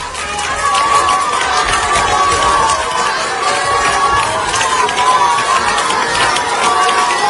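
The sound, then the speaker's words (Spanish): Pupils of the Juan Pablo II school in Puerto Real, Cádiz, Spain, applaud and cheer for a staff member on his retirement day, 23 January, a dense, steady roar of clapping and high excited shouts that holds at full loudness for the whole stretch without pause. “Eran los aplausos que los alumnos del colegio Juan Pablo II de Puerto Real en Cádiz le dedicaban a Manolo Colón en su despedida.”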